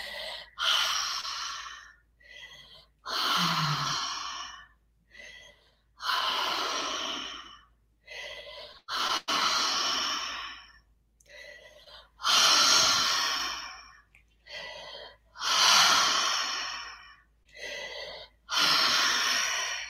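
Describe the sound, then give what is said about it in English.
Deep, rapid breathing in round two of a 20-breath breathing exercise: about eight full, loud inhales and exhales in a steady rhythm, each breath a broad rushing burst separated by brief pauses, with no talking. “Max your inhale and then let the exhale flow.”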